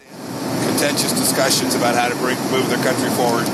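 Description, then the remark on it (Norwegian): A steady, loud roar of aircraft cabin noise during turbulence fills the whole recording, at the back of the plane where US top diplomat Mike Pompeo stands talking to the press while holding on, with several people talking over the constant hum. “President Donald Trumps toppdiplomat Mike Pompeo har kommet bak i flyet til pressen, der han står og snakker, mens han pga. turbulens holder seg fast.”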